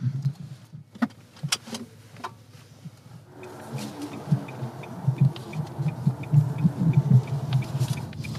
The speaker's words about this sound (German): Wir sitzen in einem Auto. Sie wollen mich irgendwo hinfahren. Ja, genau. Das haben wir jetzt vor. Es ist ein Elektroauto.